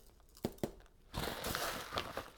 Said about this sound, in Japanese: 甘納豆を使った北海道のお赤飯を作りたいと思いますまずはお米を今測ってます